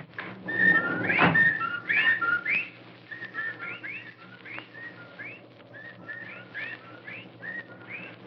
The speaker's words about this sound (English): Listen. Well, there are the whippoorwills.